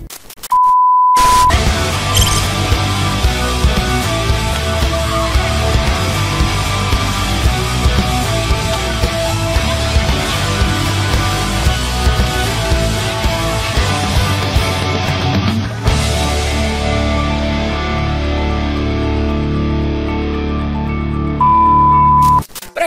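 A loud, dense intro jingle plays for about twenty seconds with no talking, its layered sound shifting partway through, and a short steady beep marks both its start and its end.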